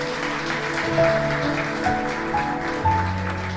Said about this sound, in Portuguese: Pode aplaudir mesmo o Senhor.